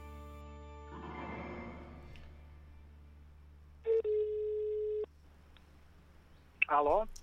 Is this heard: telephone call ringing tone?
yes